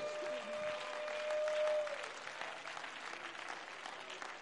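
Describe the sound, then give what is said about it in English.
A church audience claps their hands in praise during a sermon, dense, steady clapping that fills the whole stretch, a sustained high tone ringing briefly over the start before fading into the continuous applause. “Come on, let's clap our hands and give praise.”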